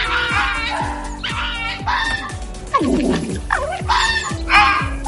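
A female fox (vixen) calls repeatedly, with a steady series of short barking yelps overlapped by higher, shrill wavering cries, clear, with no talking.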